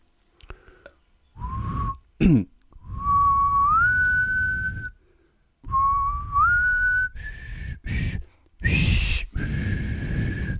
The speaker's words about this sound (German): Jetzt pfeife ich mal die Titelmelodie von seiner bekanntesten Rolle. Achtung.